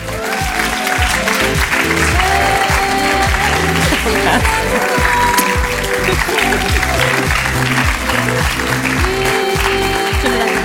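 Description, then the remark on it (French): Loud, sustained applause from a large crowd lasts about ten seconds, steady and dense throughout, with scattered voices and cheers mixed in, as an audience welcomes a woman speaker. “mesdames et messieurs, je vous demande un maximum de bruit pour accueillir la femme qui redéfinit l'audace au féminin”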